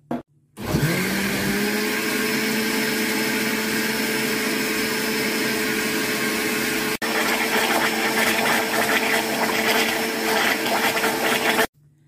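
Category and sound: household object, blender mixing a smoothie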